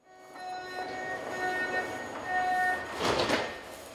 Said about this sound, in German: ein U-Bahnhof in München Anfang Oktober 2019.